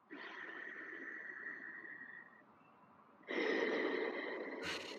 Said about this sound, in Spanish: yoga, por ejemplo, usamos muchos tipos de respiración, pero hay una que es realmente se llama Ujjayi Pranayama e inhalas por nariz, permitiendo que pase el aire por la epiglotis y llega a los pulmones y exhalas por nariz no sé si perciben el sonido.